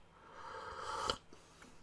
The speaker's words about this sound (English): Sorry, I've got a bit of a frog. I've got a bit of a cough and something going on.